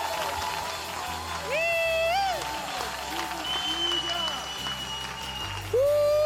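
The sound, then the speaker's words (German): An audience applauds to praise God as victor, a steady, dense wash of clapping, with voices calling out over it and a few rising whoops or shouts standing out above the noise. “Wollen wir ihm einen Applaus geben und sagen, Gott, du bist Sieger.”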